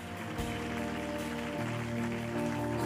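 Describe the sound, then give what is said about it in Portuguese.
A church audience applauds those who made a decision of faith that morning, a dense crackling wash of clapping that carries on over sustained keyboard chords playing underneath. “Só podemos dar um enorme aplauso a quem tomou esta decisão nesta manhã.”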